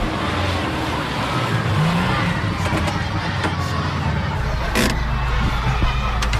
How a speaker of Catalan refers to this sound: Doncs ara falten 10 minuts per les 9, estic anant amb cotxe i estic passant per Vic.